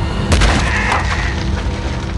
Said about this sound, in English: Suddenly, a chunk of granite slams into Joker's gut, sending him sprawling to the floor